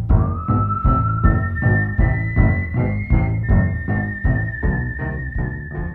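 A clear human whistle carries a long, sustained melody over a steady, repetitive piano pattern with regular pulsing chords, both loud and close, with no voices.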